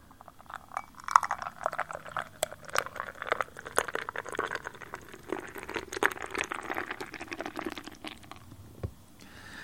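Liquid is poured into a new glass, splashing and gurgling steadily for several seconds, with light clinks of glass at the start and a sharp tap near the end, fairly quiet.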